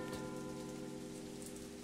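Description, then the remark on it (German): Steady autumn rain pours down in cold, foggy weather in London in the early evening, pattering densely on a hard surface with a constant, even hiss and scattered drops, no voices present. “Typisches englisches Herbstwetter Regen, Kälte, Nebel”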